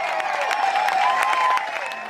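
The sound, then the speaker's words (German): A concert audience applauding the Swiss feminist yodel choir at its first big concert in April at the Stanser Musiktage, a dense wash of many hands clapping with scattered sharper claps standing out, with no voices. “Begeisterung für das …. Beim ersten großen Konzert im April an den Stanser Musiktagen.”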